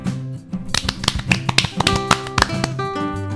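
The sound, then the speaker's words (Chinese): Warm applause from the story characters Little Chick Sister and Little Monkey, a string of sharp, separate claps in an uneven rhythm, loud and crisp, over steady sustained musical tones underneath. “鸡小妹与小猴子再度响起热烈的掌声。”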